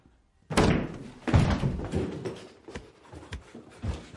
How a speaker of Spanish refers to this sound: Tembloroso, deja un billete sobre la mesa y se va. Choca contra el marco de una puerta y va directo hacia los servicios.